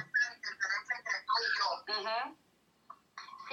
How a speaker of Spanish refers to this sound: se escucha entrecortado, está mala la señal,